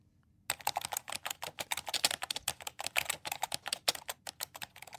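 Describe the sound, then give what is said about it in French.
Rapid, irregular keyboard typing as a protein sequence is entered into an automated peptide synthesizer robot, with many crisp, bright clicks in quick bursts and brief pauses, steady and fairly loud throughout, with no voices. “Pour cela, nous allons lui entrer une séquence protéique”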